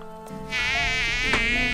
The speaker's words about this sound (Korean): 친구가 가리키는 곳은 우리 텐트였어요. 그 텐트 안에 켜둔 플래시 불빛에 그 동네 벌레들이 다 모여 있는 겁니다. 와, 이렇게 많은 모기는 처음 봐.